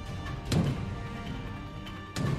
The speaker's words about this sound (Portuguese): Como se a criatura estivesse batendo na porta, sabe?